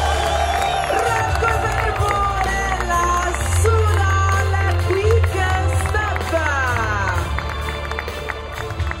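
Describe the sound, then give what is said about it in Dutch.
A loud, unbroken roar of a crowd cheering and applauding cyclist Remco Evenepoel, wearing the pink jersey, on the podium in Terrano during the Giro, with shrill shouts and whistle-like cries rising and falling throughout the nine seconds. “En op het podium in Terrano werd Evenepoel van alle renners het luidst aangemoedigd.”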